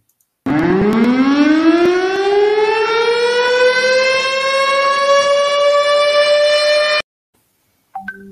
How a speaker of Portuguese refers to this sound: É, esse, esse som é meio, meio, meio chato, né? Ele é assustador. Mas imagina, você está na sua casa, toca esse alarme no seu celular. Ou seja, você sabe que é um sinal, é um alarme é, real, né?